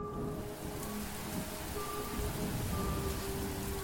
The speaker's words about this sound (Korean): 그때 갑자기 빗방울이 떨어지더니 이내 쏴 하는 소리와 함께 장대비가 쏟아지기 시작했습니다.